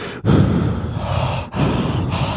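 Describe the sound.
A voice imitates loud, heavy breathing right up against the microphone, harsh breathy gusts in a few long pulses with brief pauses between them, no words spoken.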